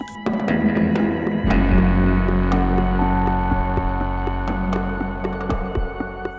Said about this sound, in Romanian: Apoi, asistăm la o cadență dirijată de tobele lui …. … se află la comandă și ghidează senzațiile.